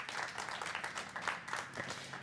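Steady audience applause for a guest top chef after an interview: many hands clapping in a dense, crackling wash that holds at an even, fairly loud level throughout, with no voices standing out.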